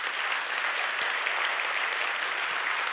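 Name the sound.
audience applause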